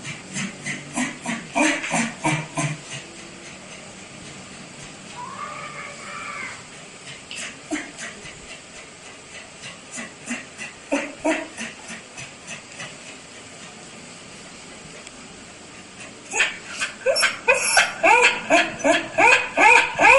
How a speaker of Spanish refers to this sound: No, en el, en el audio se escucha el jadeo del perro y la voz del niño eh, como en la mitad más o menos.